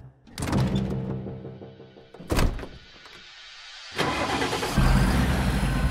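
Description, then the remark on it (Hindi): A heavy door thuds shut, then a delivery truck's engine turns over and catches, its low rumble swelling louder as the truck pulls away to make an office delivery. No one speaks. “एक दिन ऑफिस के किसी काम से वो ट्रक लेकर निकला”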